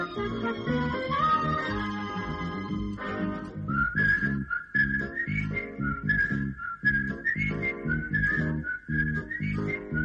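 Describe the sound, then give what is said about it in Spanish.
A bright whistled melody carries the theme tune of a 1981 Antonio Mercero TV series over a full, rhythmic band accompaniment, loud, after a brief instrumental opening, with the whistling continuing steadily to the end. “esta levanta un poquito más el ánimo porque hay sol, destaca el azul del mar Mediterráneo, chicos con bici, silbidos, año 81, Antonio Mercero.”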